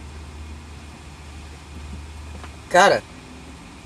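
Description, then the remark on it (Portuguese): Steady, even hiss of a car's air conditioning, switched on in hot, stuffy weather, blowing inside the cabin with a low rumble beneath. A man briefly speaks one word near the end over the constant airflow. “Mano, eu liguei o ar aqui porque tá um puta de um calor abafado.”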